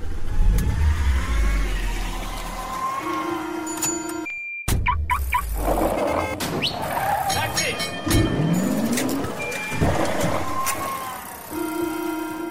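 A car engine revs and accelerates, its pitch climbing as it drives off, with a steady mechanical rumble and brief shifts in tone throughout.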